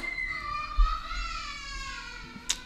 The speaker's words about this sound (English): there's my daughter. um, my son went and grabbed her, so she would come running in. So the screaming that you hear in the background, that would be my daughter.